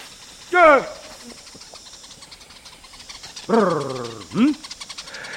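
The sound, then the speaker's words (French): A traditional Yao honey hunter makes a loud rolling trill followed by a short grunt, calling out twice to the greater honeyguide bird, against a faint outdoor background of hiss and chirps. “Ils appellent le grand indicateur en émettant un tri suivi d'un grognement, auquel répond l'oiseau.”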